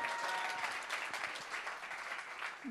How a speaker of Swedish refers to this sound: Det här är våra förebilder idag. Eh, vi kan ge dem en applåd.